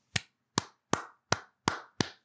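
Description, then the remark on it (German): Six sharp hand claps from a single person in a steady, slightly slow rhythm, each one a crisp, bright smack with a short decay; no voices. “Applaus, liebe Texans.”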